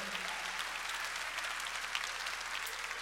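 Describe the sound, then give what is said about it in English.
A church audience claps hands in praise to the Lord in a dense, steady burst of applause, many overlapping claps blending into a bright, continuous patter at a fairly even loudness throughout. “Come on, clap your hands and give praise to the Lord.”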